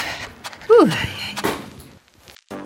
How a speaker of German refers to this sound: So, noch einmal um die Ecke. Yeah! Haustür!